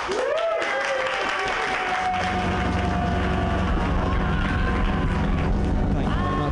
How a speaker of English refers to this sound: You have a special set, so you guys have to be really special right now and clap even bigger than you've clapped before